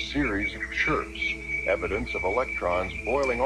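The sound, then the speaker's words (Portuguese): Eerie sonified signal sent back to Earth by the Voyager space probe, electromagnetic waves from the solar system: warbling, voice-like tones swooping up and down over a steady high-pitched whine and a low rumbling hum, continuous and fairly loud throughout. “Olha que interessante esses sons do universo.”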